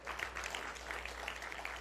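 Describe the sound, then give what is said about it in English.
A crowd applauds steadily for the single moms present, a dense wash of many hands clapping at once with no pauses, holding an even, moderate loudness throughout and no voices standing out. “And honestly, I want to just give a huge round of applause to all the single moms that are here today.”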